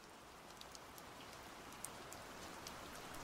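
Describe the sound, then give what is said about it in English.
Steady rain falls on a chilly day in November 2018 in a dense, even hiss, with scattered light drops pattering and ticking on a surface. No voices, just the continuous wash of rainfall. “It was a chilly and rainy day on the 26th of November 2018 when I decided to spend my late afternoon in the racking area of the government art collection.”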